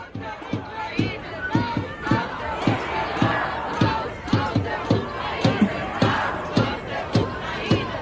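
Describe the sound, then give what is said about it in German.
A huge crowd of hundreds of thousands of people at a peace demonstration in Berlin on a Sunday roars and chants together, many voices blending into a dense wash, punctuated by regular rhythmic beats like drums or clapping throughout, loud. “Das sind Hunderttausende Menschen, die sich am Sonntag in Berlin getroffen haben, um ein Zeichen für den Frieden zu setzen.”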